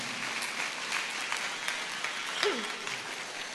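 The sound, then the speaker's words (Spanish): An audience claps steadily in a dense, sustained round of applause of glory during a sermon, continuous crackling hand claps, with a brief vocal whoop rising above it near the end. “Dale otro fuerte aplauso de gloria si lo crees conmigo.”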